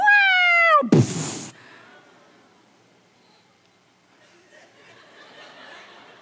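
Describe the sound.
A voice imitates the cry of a young Pantanal hawk as a man on a tall ladder lifts the branch it is on: one loud, high, strained wail that slides downward and breaks into a brief raspy screech, followed by near silence.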